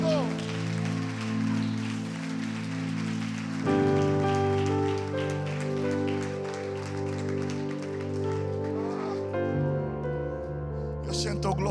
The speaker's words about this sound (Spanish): Si tú lo crees conmigo, dale un fuerte aplauso, Cristo.